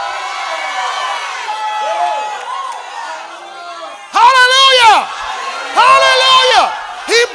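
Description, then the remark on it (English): An audience shouts and cheers in worship, a steady crowd murmur rising into loud, ringing whoops and cries that burst out in several strong waves. “See, and when you shout, you don't care nothing about what your neighbor think about you, what the person behind you think about you, what the one in front of you think about you.”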